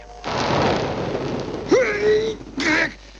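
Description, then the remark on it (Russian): A deep, rumbling blast set off with a detonator gives way to roaring, crumbling debris as a roof caves in, followed by a brief rising whine and one last short burst of rubble. “Все, кровля обвалилась не над роботами, а над нами.”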